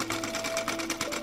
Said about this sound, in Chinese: 这时候，我看到奶奶背对着我，用缝纫机在做裁缝。原来这声音是奶奶的缝纫机发出来的。